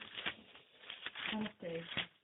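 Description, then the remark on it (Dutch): Quick papery rustles of book pages being flipped to find Romans 16, verse 25, several riffling bursts in a row, with a short murmured voice briefly sounding partway through. “En dat vind je op bladzijde Even lekker bladeren. Het is goed voor je.”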